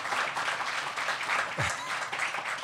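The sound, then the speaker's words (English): A crowd applauds steadily, a dense wash of many hands clapping at once that holds at an even level throughout, with no voices rising above it. “You guys, yeah, clap, you guys clap for that.”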